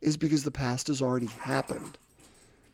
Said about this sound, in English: That's that's my dog Dexter just showing off a little bit in the background.